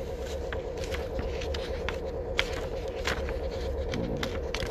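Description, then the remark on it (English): A paper book page being turned, with soft rustling and crinkly scraping flicks over a steady low hum; no one speaks. “turning the page here.”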